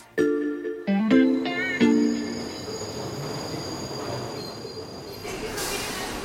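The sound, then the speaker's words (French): An elevated subway train in Queens, New York, rolls past with loud, shrill wheel squeals in several bursts at the start, then a steady rumbling roar of cars on the track that lingers. “Euh, pour aller le voir, j'ai pris le métro aérien, j'ai marché jusqu'à la rue où il habite.”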